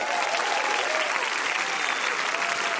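An audience claps steadily throughout, a dense, even wash of many hands with no pauses, fairly loud and continuous, with faint voices murmuring beneath.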